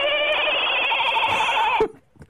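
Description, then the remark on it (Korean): A person imitates a goat's bleat in one sustained, quavering, nasal cry lasting nearly two seconds, loud, then it cuts off abruptly into near silence with a faint breath. “네, 염소 하겠습니다.”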